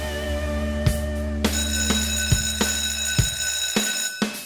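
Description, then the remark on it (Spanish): A school bell rings continuously with a sustained metallic tone, struck by a series of sharp clangs at an uneven rhythm, loud, with no talking, signalling the start of a new class. “Suena el timbre, significa que comienza una nueva clase aquí en la Academia de Emprendedores en ADN”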